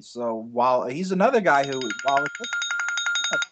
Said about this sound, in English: Yeah, sorry, sorry about that. Hey, last time it was me. This time it was you. That was my alarm to originally call you on Skype for this show that we recorded an hour early